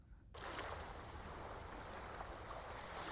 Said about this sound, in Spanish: Además de, claro, escuchar el ruido del mar